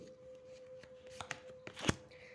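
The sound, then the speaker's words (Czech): Cards being shuffled: a quiet run of papery flicks and snaps in an irregular rhythm, building to a sharper, louder riffle near the end, over a faint steady hum. “tady padají pěkné karty.”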